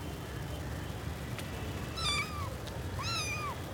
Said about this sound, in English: Look, uh, kitten. Hitchhiker included? kitten.